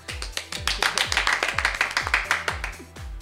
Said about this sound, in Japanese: いや本当に再会に拍手